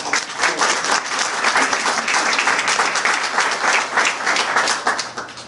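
Sustained audience applause, a dense, steady wash of many hands clapping at once, loud throughout and tapering slightly at the end, with no voices standing out.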